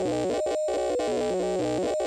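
A buzzy modular synthesizer drone from the Contour and Maths modules feeding the Bang, rich in harmonics, whose pitch steps around in a quick repeating pattern, briefly cutting out twice before resuming, with no voices present.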